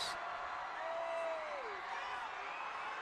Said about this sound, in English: Travis Kelce, as you can imagine, the crowd, this is the, the wildest the crowd has been this entire parade route.